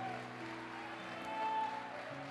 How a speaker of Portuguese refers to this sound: Nunca mais diga que você não sabe tocar um instrumento. Esse é um instrumento que Deus te deu. Vamos aplaudi-lo mais uma vez aqui. Esse é um bom instrumento, pode tocar à vontade. Uns tocam mais grave, outros mais agudos.